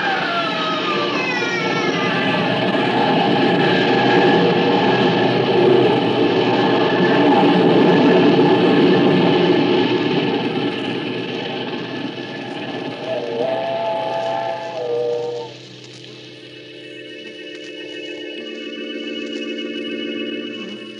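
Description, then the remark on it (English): A loud train rumbles past, its steam whistle shrieking in long sustained blasts over the roar, then the noise thins as the whistle holds steady tones at the end. “When the train had passed, I saw what was left of his body on the tracks.”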